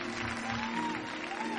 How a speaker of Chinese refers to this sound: 他最后连续转了六圈然后向观众屈膝鞠躬。热烈的掌声和欢呼声在他的耳边响起。